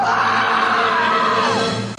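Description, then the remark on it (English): A single loud, piercing shriek on an answering machine greeting, held for about two seconds and unbroken, its pitch sliding downward just before it cuts off abruptly. “Leave your message at the sound of the shriek.”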